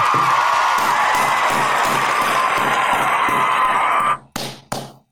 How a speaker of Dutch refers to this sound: Applaus, Reus. heel goed.